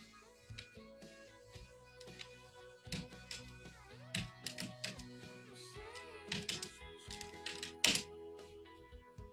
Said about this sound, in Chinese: 哦，听见没？就是我打字是这样的，所以你们就是说，呃，呃，我打字我是不可能打字的，我打字你们都听得见的。